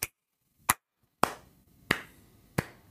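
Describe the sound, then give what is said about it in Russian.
A slow, deliberate handclap: five sharp, crisp claps spaced evenly about two-thirds of a second apart, alone with no voices, like a sarcastic slow clap. “Я просто похлопаю.”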